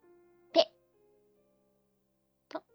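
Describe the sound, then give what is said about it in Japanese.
A voice imitates two small, soft coughs, one early and one near the end, separated by a quiet pause with a faint low hum underneath. “そうするとですね、バタロウがケフケフとちょっと咳をして、”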